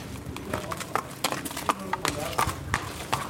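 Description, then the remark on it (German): Steady clip-clop of a trotting racehorse's hooves at a brisk, even rhythm, sharp percussive strikes, with a low background rumble and some indistinct voices underneath, as the winner of the day's first race takes a lap of honour at the Straubing harness racing track. “Der Sieger dreht noch eine Ehrenrunde, doch dann muss er zu Biendl.”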